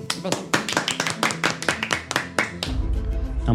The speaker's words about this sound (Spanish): ¡Aplauso!